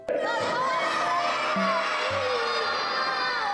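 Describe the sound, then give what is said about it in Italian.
A crowd of children at a planetarium shout out together in unison, calling for someone, a loud, sustained chorus of young voices filling the space, with a low hum underneath. “E allora mi sa che devo farlo chiamare direttamente da voi bambini del planetario.”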